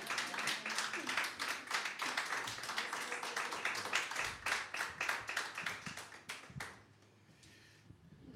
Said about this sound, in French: Vous méritez un bel applaudissement.